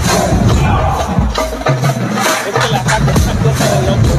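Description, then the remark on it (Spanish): A loud haka-style war chant: many voices shouting forcefully together in a dense, crowd-like roar, punctuated by sharp rhythmic accents, continuous for the whole stretch. “Tengo que hacer una jaca.”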